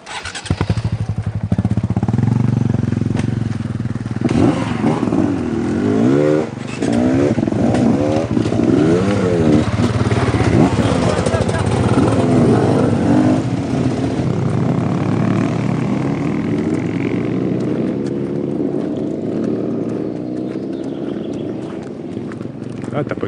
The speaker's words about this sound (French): Peut-être t'es habitué, tu avoir des, troupeaux de motos comme ça Oh le bruit quest ça que ça veut dire ça Ça veut dire oui Et l'odeur que ça laisse, c'est hein, c'est ça peut-être, cette petite odeur d'essence,